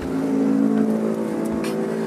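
car engine

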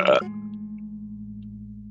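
burp

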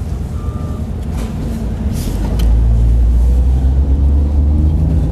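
car engine

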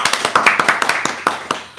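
hand clapping applause

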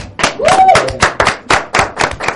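studio applause

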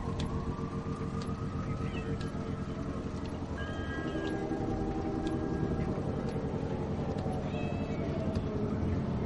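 cat meowing

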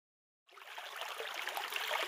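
flowing stream water

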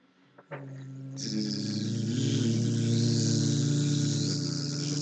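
bees buzzing

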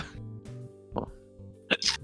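hiccup

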